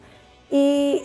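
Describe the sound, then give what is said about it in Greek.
A single sustained, steady hooting call, like an owl or similar bird, sounds out clearly for about half a second after a brief quiet stretch. “Αλλά τι, τι πουλί είναι αυτό.”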